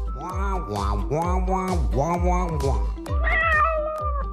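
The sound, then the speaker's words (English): A cat meows loudly and insistently, about eight rapid meows in a row, the last few rising higher and more drawn out. “He says Northwest Naturals has cat treats too.”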